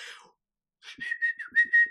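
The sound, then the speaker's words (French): A person whistles a short, wavering tune, the pitch sliding and dipping across a few notes, with faint breathy noise at the start and between phrases. “quand je siffle, en fait, c'est que normalement, euh, il y a des images, euh, des images de la guerre mondiale qui viennent dans ma tête, et donc je veux pas, je veux pas leur donner euh, raison.”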